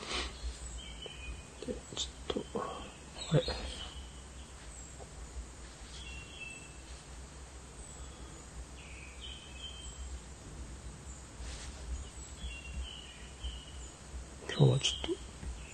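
birds chirping in background

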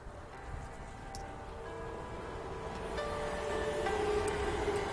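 train approaching on rails

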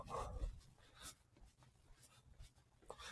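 crow cawing nearby

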